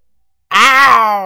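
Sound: imitated lion roar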